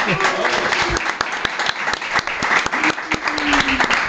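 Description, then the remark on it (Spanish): Dense, steady applause with sharp clapping throughout, mixed with crowd shouting and cheering voices that rise briefly near the end, as Cristiano Ronaldo ends his speech accepting his third Ballon d'Or with a guttural scream. “Después de, ganar su tercer balón de oro, tras agradecer el premio, efectivamente remató su discurso con un grito gutural que fue recibido entre el aplauso y el asombro.”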